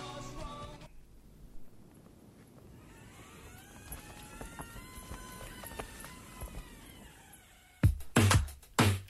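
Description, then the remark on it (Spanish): A door creaks slowly open with a long, wavering hinge squeal over a quiet hiss, followed by a few loud thumps near the end, a door sound used within the music of a song. No one speaks. “Ahí está la puerta, te diste cuenta, ¿no? De qué en la música en este lado B del espacio exclusivo de Frozen Side.”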